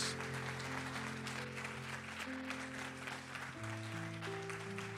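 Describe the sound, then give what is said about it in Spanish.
An audience claps steadily for several seconds as applause for the Holy Spirit, a dense, even wash of applause layered over sustained keyboard or organ chords that shift pitch partway through. No one speaks. “¿Qué tal si le damos un aplauso al Espíritu de Dios?”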